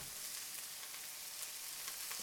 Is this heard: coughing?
no